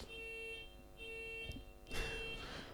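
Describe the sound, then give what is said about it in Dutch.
A car alarm blares with steady, piercing electronic tones in repeating bursts, fairly loud, with a brief noisy clatter near the end, as a thief tries to steal a car in the Brugse Poort area of Ghent. “Dit keer is niet de die passeert, maar een dief die probeert een auto te stelen.”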